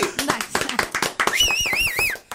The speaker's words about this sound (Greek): Καλό. Μπράβο, να χειροκροτηθεί.